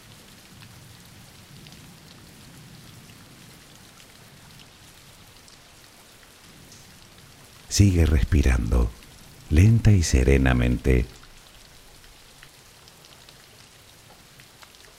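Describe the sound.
Steady rain falls throughout as a soft, continuous hiss of drops, a rain background for a sleep relaxation, with a calm voice speaking briefly in the middle over the downpour.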